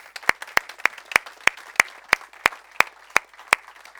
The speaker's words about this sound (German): Und wir wollen mit einem kräftigen, liebevollen, begeisterten Applaus bitte diese Menschen begrüßen.